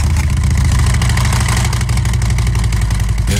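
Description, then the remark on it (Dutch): A loud engine idles through a Bone Shaker aftermarket exhaust, a deep steady rumble with a fast, even chugging pulse and no voices, holding constant for the whole few seconds. “Eh, eh, ik heb er hier nog eentje, dat is de, de Bone Shaker, dit even.”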